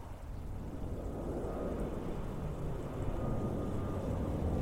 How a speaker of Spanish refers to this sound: yo a lo lejos escuché el ruido de un avión.